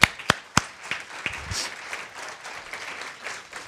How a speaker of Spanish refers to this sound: Un aplauso para ellos, por favor.